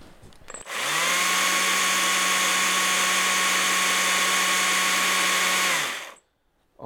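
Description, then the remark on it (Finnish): A battery chainsaw spins up and runs steadily for about five seconds, a loud, even whir of the chain with a faint hum beneath, then cuts off abruptly. No one speaks. “No juu, siinä on tosiaan vaan toi ketjun ääni oikeastaan, toi moottorin ääni ei, ei siitä erotu laisinkaan.”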